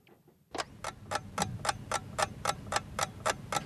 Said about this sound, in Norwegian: der skal vi høre at klokka tikker mot 14.10 og regjeringsskiftet